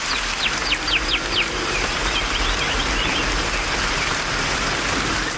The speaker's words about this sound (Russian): Несколько шагов, и вы в настоящем тропическом лесу Амазонки, где каждые 15 минут можно попасть под тропический ливень.